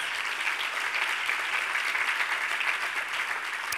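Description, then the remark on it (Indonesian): A church audience claps steadily and continuously in applause for Jesus, a dense wash of many hands at an even level throughout, with no pauses or voices rising above it. “Berikan dulu tubuh tangan bagi Tuhan kita Yesus.”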